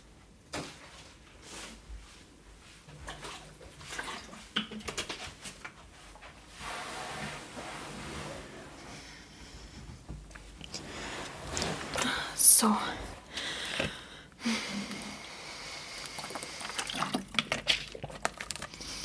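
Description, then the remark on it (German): Quiet handling noises and clinks as someone fetches and pours their own drinking water, with soft splashing and trickling in bursts, a sharper knock midway, and faint whispering in the background. “Ich hole mir mein Wasser.”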